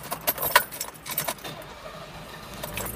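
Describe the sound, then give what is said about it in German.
Jingle of keys rattling in a car's ignition after the carburetted car stalled from running too warm, a quick burst of bright metallic clinks over the first second, then settling into a quiet, low interior hum. “Oh, jetzt ist mir das Auto ausgegangen.”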